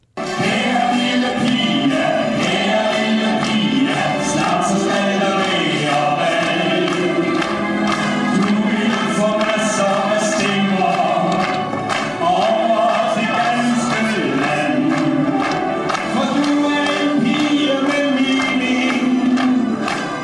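A male singer performs a Danish pop song over a full band backing, loud and continuous throughout with a steady, upbeat feel and no pauses.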